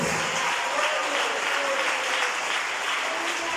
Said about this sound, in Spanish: Denle la aplauso a Cristo Jesús.